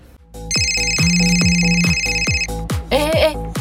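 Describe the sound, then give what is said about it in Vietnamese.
A phone ringtone plays loudly for an incoming call from the woman's husband: bright, sustained electronic tones over a steady pulsing beat for about two seconds, then a short burst of voice near the end. “chồng bà gọi đây này Muốn nghe hay không tùy bà”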